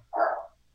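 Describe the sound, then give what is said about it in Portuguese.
A single short dog bark, moderately loud, with no talking around it. “Desculpa o cachorro latindo aí, tá?”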